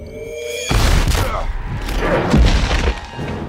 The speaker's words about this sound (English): But then when Godzilla charges it with his breath near the end, when they're both going up against the um, uh, mecha, it's uh, it's that moment in the Avengers where Thor whacks Tony with lightning.